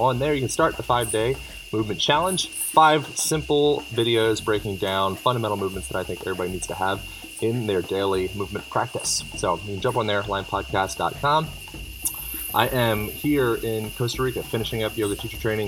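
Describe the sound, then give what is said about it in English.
A steady, high-pitched drone of very loud cicadas buzzing in a jungle runs continuously in the background while a man talks over it in the foreground, recorded from inside a small jungle hut. “You can hear the cicadas in the background, perhaps.”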